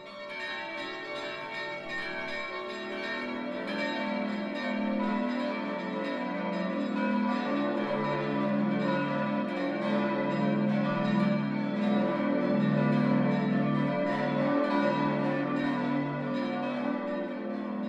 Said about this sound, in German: Es ist 12 Uhr. Das Mittagsläuten kommt heute von der evangelischen Stiftskirche im mittelfränkischen Feuchtwangen.